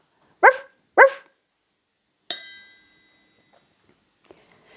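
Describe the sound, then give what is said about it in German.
A dog gives two quick, loud barks about half a second apart, followed by a bright bell-like chime that rings out and fades slowly. A faint click comes near the end. “So, und jetzt sage ich noch Tschüss und Ciao. Wuff, wow.”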